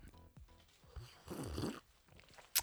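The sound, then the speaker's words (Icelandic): A single noisy slurping sip of strong coffee, drunk in Sapporo from a bottle bearing the Icelandic flag, lasting about half a second, with a short breathy sound before it and a sharp little click, like a swallow or the container being set down, just after. “ég er hérna með ógrinni af sterkur kaffi fæ mér eitt sopa”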